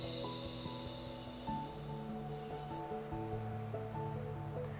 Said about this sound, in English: I wonder if you can hear my air conditioner. I bet you can.